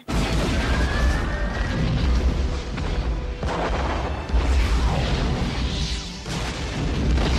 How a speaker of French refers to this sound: Euh, je pense par exemple au film Armageddon, où euh, on voit des explosions dans l'espace.